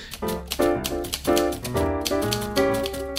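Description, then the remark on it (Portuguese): Rapid, irregular clacks of a typewriter being typed on, close and fairly loud, layered over a steady tonal musical background with no voices. “De colocar, procurar a musiquinha antiga e a barulhinho de máquina de escrever.”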